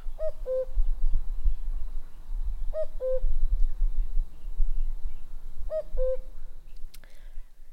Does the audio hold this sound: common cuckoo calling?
yes